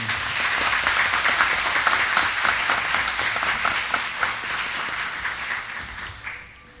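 A room full of people claps steadily for several seconds, a dense, sustained patter of applause that holds its level before tapering off near the end.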